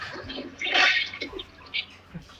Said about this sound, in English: Toilet flush. That's got to be a first for the podcast. Um, Hearing a toilet flush on the podcast, I think that's a first.